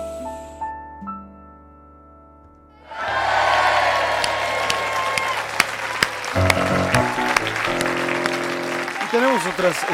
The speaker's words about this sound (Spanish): gracias por su aplauso.